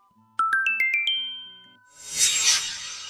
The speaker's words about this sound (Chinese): 这时候。李炫的手机提示音响起来了。